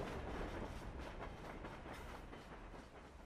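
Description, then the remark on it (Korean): Steady rumble from inside a moving Swiss train bound for Zurich, with the wheels clacking over the rails in a quick, regular rhythm. Continuous and fairly loud, with no voices. “다시 스위스 기차 안이다.”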